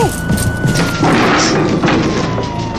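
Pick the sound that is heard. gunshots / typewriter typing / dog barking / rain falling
gunshots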